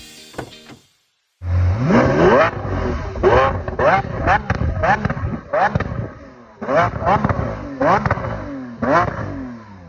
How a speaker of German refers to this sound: Und das ist wirklich der Serienauspuff. Das muss man mal festhalten.